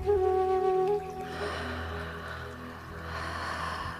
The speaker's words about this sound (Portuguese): vou propor a você, faça uma respiração profunda. Inspirando.